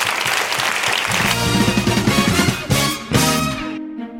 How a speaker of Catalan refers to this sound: Aquest segon aplaudiment conjunt per tota la gent que he dit i les que ens deixem, em sembla també que és important. Gràcies a tots vosaltres.